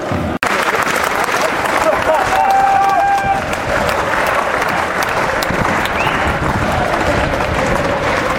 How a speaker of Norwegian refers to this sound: Det ble nettopp dratt i gang en varm applausrunde